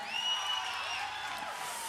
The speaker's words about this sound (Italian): Un bel applauso per Paolo!